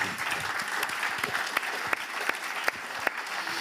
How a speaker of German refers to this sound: Einen herzlichen Applaus nochmal für Finanzminister Magnus Brunner.